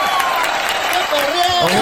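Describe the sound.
An audience applauds a winner called up to the stage, with dense, steady clapping that stays loud for the whole moment, while voices call out and talk over the applause.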